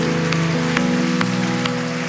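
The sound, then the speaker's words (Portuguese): A church audience applauds the Lord in a dense, steady wash of clapping, with sustained musical tones underneath and a few sharper rhythmic accents every half second or so. “Dá salva de palmas ao Senhor.”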